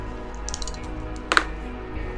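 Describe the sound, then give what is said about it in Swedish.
Two dice clatter briefly, a few light clicks followed by a sharper rattle as they land, rolling a total of twelve, with a low steady hum underneath and no talking. “Får jag ta två tärningar?”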